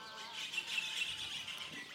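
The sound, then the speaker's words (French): Birds chirp and twitter continuously in an open outdoor setting, a steady chorus of high, overlapping calls with no voices present. “Donc euh, une cohabitation avec les oiseaux, c'est bien.”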